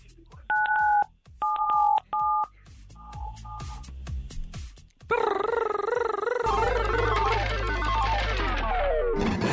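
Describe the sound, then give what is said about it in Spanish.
Several short, clear telephone keypad beeps sound in quick succession as 977 is pressed on a phone, followed by a loud, warbling electronic fanfare that fills the rest of the moment. “Ahí está, entonces presiona en tu teléfono 977.”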